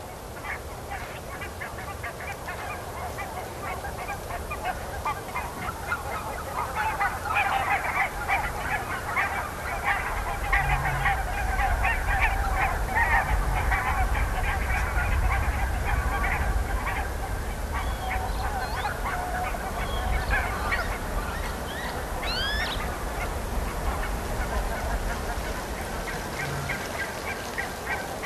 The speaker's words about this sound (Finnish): Kuunnellaan nyt, siellä on joku torikokous taas hanhien keskuudessa.